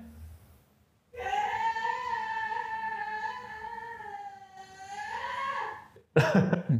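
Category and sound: human body sound, person screaming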